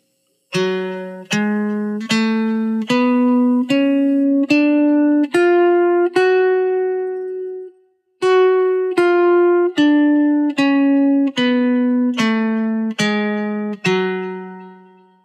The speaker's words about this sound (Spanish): Muy bien, la escala de Fa sostenido menor armónica es de la manera siguiente. Fa sostenido, Sol sostenido, La, Si, Do sostenido, Re, Mi sostenido y Fa sostenido. Y suena así.